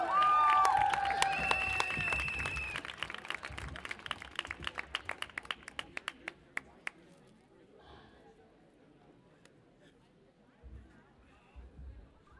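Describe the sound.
A crowd applauds loudly with cheers and shrill whistles, the dense clapping thinning to a few scattered claps before fading into a low murmur of voices.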